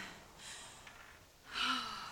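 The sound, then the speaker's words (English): Heavy, breathless exhales, two noisy puffs a second apart, the second louder and longer, from someone panting hard after a rowing sprint, with no talking. “We're all puffing, we're all panting.”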